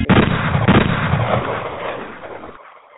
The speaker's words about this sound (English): Where the gunshots? give him gunshots because this is going to be his life.